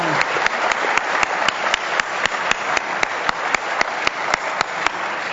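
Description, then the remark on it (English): Guests at a luncheon applaud their guests steadily for several seconds, a dense wash of clapping with one nearby pair of hands beating out a sharp, regular rhythm on top. “And uh, if we could get a round of applause”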